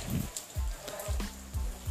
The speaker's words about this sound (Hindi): बहुत ही अच्छी बारिश हो रही है